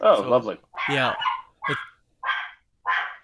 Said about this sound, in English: That's my dog.